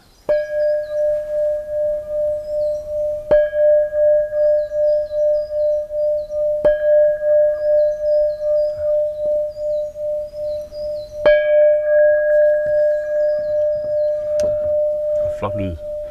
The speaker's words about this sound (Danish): Uh, den her er lidt speciel. Den lyder som en mere eller mindre japansk klokke, men faktisk er det en oversavet iltbeholder. En oversavet iltbeholder, ja.